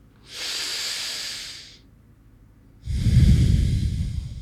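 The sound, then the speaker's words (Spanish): Forceful breathing through the mouth as part of a breath-of-fire breathing exercise: a long hissing breath, a short pause, then a second, heavier breath with a rougher, rushing tone. No talking. “Me parece un poquito similar a la respiración de la meditación.”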